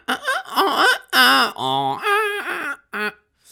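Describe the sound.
A voice imitates an x-ray machine in an autotuned style, with loud bursts of warbling, wavering tones that glide and step in pitch, broken by a few short pauses.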